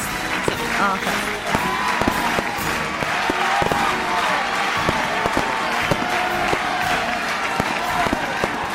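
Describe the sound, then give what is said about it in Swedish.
An applause sound effect celebrating a one-year anniversary: a crowd applauds steadily, dense clapping with a few sharper claps standing out, cheering voices mixed faintly into the steady roar. “Applåder”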